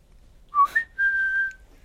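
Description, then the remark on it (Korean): A short human whistle: a quick rising chirp followed by a long steady held note, close and clear with no talking. “기분 나쁜 휘파람 속에서 … 병맛 향이 느껴지더라.”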